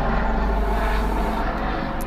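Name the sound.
airplane passing overhead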